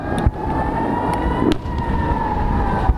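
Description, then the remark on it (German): A steady, sustained air-raid warning siren in Israel, sounding against rockets fired from the Gaza Strip, holds at one pitch throughout, loud and continuous over broad rumbling background noise, with a few sharp knocks or clicks breaking in. “Denn in den vergangenen zwei Wochen hat dieses Geräusch das Leben der Menschen in Israel bestimmt.”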